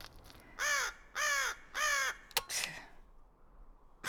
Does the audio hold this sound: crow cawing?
yes